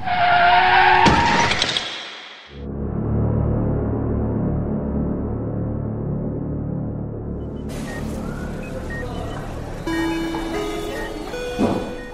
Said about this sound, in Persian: اصلا حواسم نبود که وسط خیابونم و بعدش فقط یادمه که صدای بوغ و جیغ ترمزه ماشین